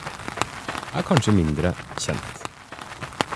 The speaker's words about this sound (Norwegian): Det er Therese Falks raske skritt mot grusen.